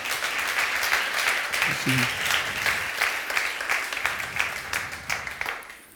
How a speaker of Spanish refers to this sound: ¿Cuántos pueden decir amén a esto y darle un fuerte aplauso?